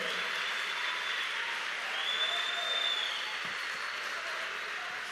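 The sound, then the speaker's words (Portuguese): Sustained audience applause, a dense steady wash of many hands clapping at an even loudness for the whole stretch, with no distinct voices rising above it. “Aplauda mais forte se você crer.”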